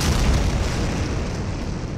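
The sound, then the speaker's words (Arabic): A loud, deep explosion of an airliner on a Toronto–London–Mumbai flight blowing up in midair over the sea off the coast of Ireland roars through the whole two seconds, a dense rumbling blast with heavy bass that holds steady rather than fading, with no voices. “فجأة وفي لحظة غير منتظرة انفجرت الطائرة دون سابق إنذار في الجو فوق البحر قبالة ساحل إيرلندا”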